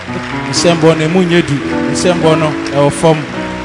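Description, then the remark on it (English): An audience claps their hands in a steady, fairly light patter, mixed with voices that call out and sing over the noise of the clapping. “Your clapping is not very strong.”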